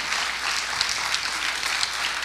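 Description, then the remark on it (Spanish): An audience breaks into steady, dense applause, many hands clapping together in a continuous bright wash of claps with no voices standing out. “Amén, dale un aplauso al Señor.”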